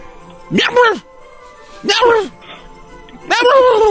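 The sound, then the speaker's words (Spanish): A person's voice makes three drawn-out animal cries, imitating a cat's meow and a dog's bark blended together. The cries are fairly loud and separated by short pauses. “¿puedes hacer el ruido de un gato y un perro a la vez?”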